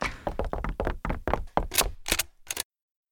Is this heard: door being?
yes